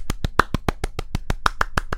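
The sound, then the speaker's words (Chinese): Steady, brisk hand clapping, about a dozen sharp, even claps in quick succession at a regular rhythm, moderately loud with no talking over it. “节目一开始要先来点掌声”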